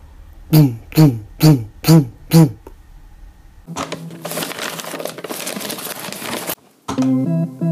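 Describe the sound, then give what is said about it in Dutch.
Loud music from an illegal party: five heavy rhythmic thumps, then a dense, noisy wash of sound, ending with a burst of sustained tonal music, all loud. “In de grote steden, Amsterdam, Rotterdam, kun je zoeken naar illegale feesten. Dat klinkt ongeveer zo.”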